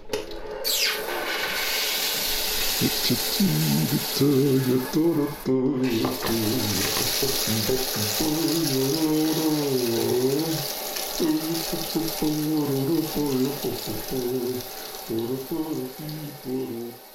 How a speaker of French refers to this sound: Je prends juste une douche euh, vite fait, hein, pour enlever le sel, et je te rejoins au studio.